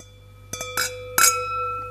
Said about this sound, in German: Wir stoßen jetzt gegen, ich stoße gegen die Weinflasche an, damit man das hört. So, weil wir ich nehme mein, anderes, mein Wasserglas.